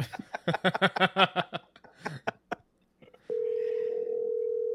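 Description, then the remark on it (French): A burst of rhythmic laughter fades out, a few faint clicks follow, then a steady, loud telephone dial tone hums continuously to the end as phone calls are being made. “Après ça, on fait des coups de téléphone.”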